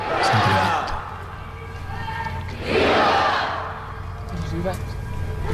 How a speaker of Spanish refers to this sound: vivas surgen espontáneos, los presentes no están preparados, pero bueno, en este momento pues no se puede contener la emoción y sale pues en estos gritos, en este fuerte aplauso.